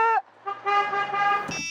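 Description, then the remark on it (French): A car horn honks loudly at a roundabout: a quick short toot, then a long sustained blast that jumps to a higher, brighter tone just before it cuts off. “Ah, écoute, klaxonne.”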